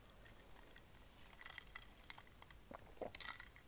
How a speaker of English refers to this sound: let me take a sip of my coffee because